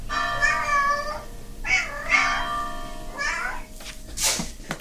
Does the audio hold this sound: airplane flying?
no